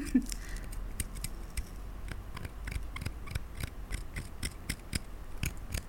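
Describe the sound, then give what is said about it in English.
Small dentistry tools carving into a dry, hard surface, making a series of short, crisp scraping strokes in a fairly steady rhythm, with no voices. “and I, I love using these, these dentistry tools.”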